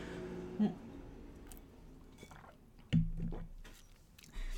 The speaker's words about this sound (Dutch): Wacht, ik ga even een slokje water nemen, want ik krijg een droge mond. Momentje.